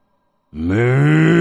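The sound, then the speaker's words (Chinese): A human voice imitates the low, drawn-out moo of an old yellow ox, a deep roar: one deep, throaty bellow that starts abruptly after a brief silence and holds steady and loud to the end. “据老头老刘头说啊，有点像是老黄牛的叫声。当时的叫声，据我分析，应该是这种，”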